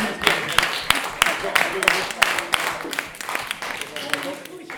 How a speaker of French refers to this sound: Voilà, on l'applaudit et on Merci.